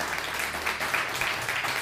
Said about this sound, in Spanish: Por favor, un fuerte aplauso para ellos todos nuestros hermanos cubanos, puertorriqueños, República Dominicana también, por favor.